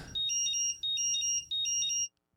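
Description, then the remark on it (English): A battery charger's electronic alarm beeps in three quick, shrill bursts of warbling high tones, loud, then cuts off into silence. “call it with the uh, the battery charger alarm and say that's it.”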